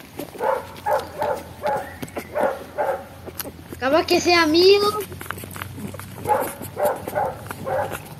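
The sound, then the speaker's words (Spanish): Dogs bark in the distance in steady, repeated bursts, recorded at a gym, pausing while a person speaks briefly in the middle, then barking resumes at the same rhythm. “Sí, es del gimnasio Se escuchan a lo lejos los perritos.”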